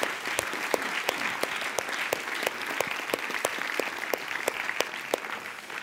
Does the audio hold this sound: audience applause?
yes